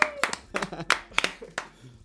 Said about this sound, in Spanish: Tres días, pero pues un aplauso. Todo el público aquí presente.